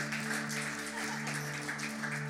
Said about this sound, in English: Can we clap our hands for the worship team, for Jesus?